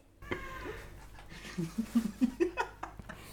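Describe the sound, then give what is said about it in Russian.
A cat meows: a drawn-out call, then a rapid run of short, low chirping meows in the second half, with no talking over it. “Как будто я сорт переводчик кота.”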